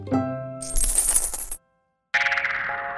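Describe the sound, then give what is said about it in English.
Coins drop: a ringing metallic clink, then a bright burst of jingling, a short silence, and another shimmering cascade of coins settling. No one speaks. “can also get change in paper money or in coins.”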